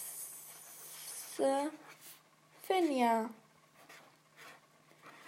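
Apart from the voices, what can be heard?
pen writing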